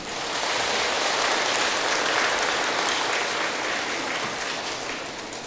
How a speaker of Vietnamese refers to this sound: chúng ta hãy dâng cao tràng pháo tay để phát nguyện làm việc này